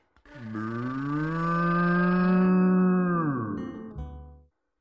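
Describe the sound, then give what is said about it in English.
A person imitates a cow with a single long, loud moo, held steady for about four seconds before sliding down in pitch and trailing off. “Then he reached deep, deep, deep, deep, deep, deep, deep down inside of George and put out a cow.”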